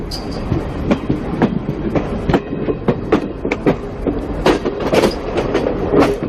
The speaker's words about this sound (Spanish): Ahí está llegando el tren a Canfranc.